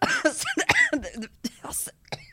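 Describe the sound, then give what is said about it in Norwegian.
A loud, staged coughing fit: a rapid string of harsh, raspy coughs, some strained and voiced, tumbling one after another with only brief gasps between them. “Hun har planlagt dette hosteanfallet i mange uker.”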